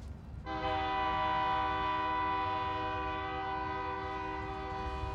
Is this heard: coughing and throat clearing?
no